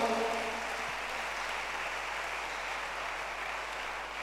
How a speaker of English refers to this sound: Clap your hands for the Lord.